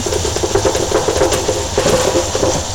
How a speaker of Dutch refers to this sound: Dan hebben we hier onze bak met mais. Die gooien we erin. Herkenbare geluid van, van de mais in de ketel